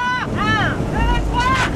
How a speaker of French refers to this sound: L'alerte est déclenchée pour les gendarmes maritimes et les fusiliers marins. Ils embarquent à bord d'un Zodiac noir et foncent à toute allure devancer le bateau.